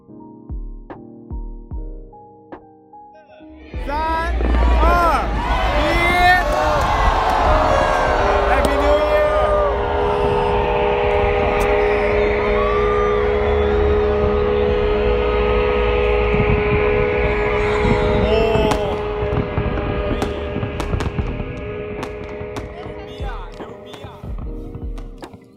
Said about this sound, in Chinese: 二零二零年的第一秒就很有纪念意义。当时在鹿特丹看烟花。